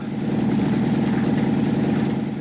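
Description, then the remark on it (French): A Panhard Levassor Type A, model P2D early automobile with a 4-horsepower engine idles steadily, its low, throbbing chug repeating in an even rhythm at a constant loud level, with no voices. “Il a acheté une pan Levassor euh, type A, modèle P2D, à moteur d'une puissance de 4 chevaux.”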